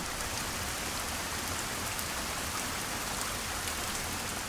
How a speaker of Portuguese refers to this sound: Tem horas que eu só ouço a chuva.